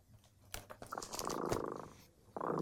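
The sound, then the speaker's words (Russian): A cat named Tremota purring in a steady, buzzing rumble, preceded by a few soft clicks, then fading briefly before the purr swells again, fairly loud with no voices. “Кот Тремота запел свою песенку.”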